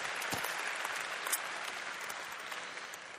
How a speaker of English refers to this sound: If you are gay, lesbian, bisexual, or transgender, I am so glad that you are here. You can applaud on that one.